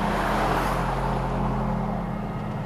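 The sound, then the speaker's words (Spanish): A car engine roars loudly as the driver floors the accelerator to flee from a crossroads, holding a steady, throaty drone with deep rumbling tones before easing off slightly toward the end as it pulls away. No voices. “El futbolista se sube a otro coche estratégicamente aparcado en un cruce de caminos pisa el acelerador a fondo y desaparece del lugar a toda prisa.”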